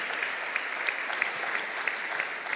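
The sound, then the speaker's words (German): Steady audience applause at a church gathering, thanking two speakers: a dense wash of many hands clapping at an even level with small crisp peaks scattered throughout, no voices standing out. “Applaus”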